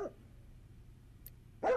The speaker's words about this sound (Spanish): pero seguramente no se imaginaron que se trataba la amistad eh, de un perro, evidentemente estamos escuchando un perro.